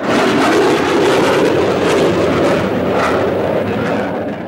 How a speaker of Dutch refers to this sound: Bij het ochtendgloren vliegen die starfighters laag over